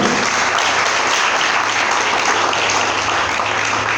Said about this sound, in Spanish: Dele a Cristo el aplauso, por favor.